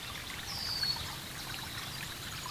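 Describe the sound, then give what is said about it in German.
Water trickles steadily into a stone basin and flows on toward a pond, a soft continuous splashing and babbling that stays even throughout, fairly quiet, with no voices. “Das Wasser plätschert beständig in das Steinbecken und bahnt sich seinen Weg bis zum Teich.”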